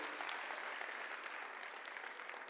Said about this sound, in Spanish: Vamos, denle un aplauso. Yo estoy predicando mejor de lo que usted está respondiendo.